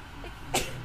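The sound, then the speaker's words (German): A single short, sharp sneeze bursts out midway through an otherwise quiet stretch, brief, with no talking around it. “Oh, Gesundheit.”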